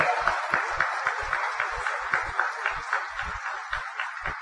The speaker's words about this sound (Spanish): Aplauso porque usted está aquí. Aplauso.